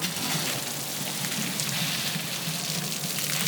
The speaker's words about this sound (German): Den Markt am Rotkreuzplatz zieren zwei große wasserspritzende Figuren, die gerade im Hochsommer für eine angenehme, frische Atmosphäre sorgen.